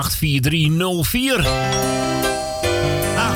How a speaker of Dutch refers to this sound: gaat de bel. En daar wordt er de deur geklopt. Hard geklopt. Zacht geklopt.